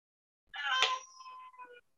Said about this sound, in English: that's crazy is that your crazy blind cat he's not blind and this isn't the one